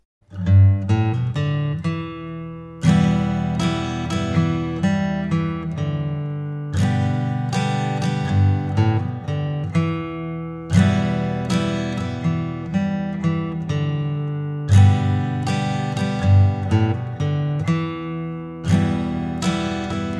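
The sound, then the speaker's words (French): Strummed acoustic guitar chords, played with two held background notes removed, ring out in a steady, repeating pattern, played alone and fairly loud, each strum striking sharply before the chord moves on, with no held notes lingering beneath. “Voilà ce que ça donnerait si on retirait ces deux notes vous allez voir, c'est très différent.”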